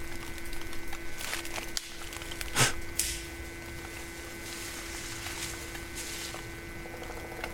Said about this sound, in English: A herd of deer who I'm sure saw and smelled me long before I heard and saw them, sprint away through the thick underbrush ahead of me.